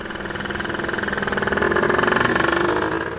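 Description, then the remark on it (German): A steady, loud engine rumble with rhythmic pulsing, swelling slightly, from morning motor traffic on the Hanauer Landstraße, a busy street through the Ostend district of Frankfurt, Germany, beside the ECB towers, with trams rattling past; no voices. “Schon morgens donnert hier der Verkehr durch, Straßenbahnen rattern vorbei, Radfahrer fahren zur Arbeit, es ist belebt.”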